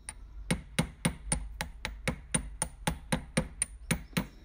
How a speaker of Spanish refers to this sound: Para realizar pailas manejo la técnica de martillado y las elaboro en cobre y bronce.